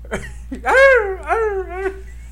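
A dog whines and cries in a few drawn-out, wavering howls rising and falling in pitch, clear, with no barking and no one talking.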